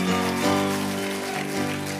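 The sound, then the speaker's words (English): A crowd claps steadily in a dense, rain-like wash of applause, with sustained organ or keyboard chords ringing underneath. No one speaks. “I need you and clap like we're gonna break a spirit of independence.”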